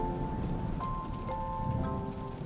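A storm with steady, dense rain hissing throughout, a deep low rumble of distant thunder beneath it as lightning strikes trees and ground, and faint sustained tones drifting in the background.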